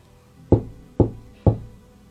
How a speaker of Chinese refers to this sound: 一个农家妇女正在灶前准备做饭，一阵突如其来的敲门声传了过来。